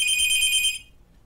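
A telephone rings with a bright, high electronic trill that holds steadily for under a second, then cuts off, leaving only faint low background hum.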